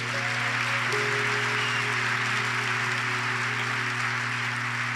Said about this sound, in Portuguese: Vamos aplaudir bem alto a Jesus.